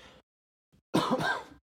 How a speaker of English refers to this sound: Excuse me. Sorry about the cough.